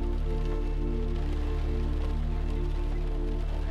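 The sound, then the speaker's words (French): Rain falls in a steady, even patter for several seconds, a constant wash of droplets with a low hum beneath it and no voices. “Concentrez-vous sur le bruit de la pluie.”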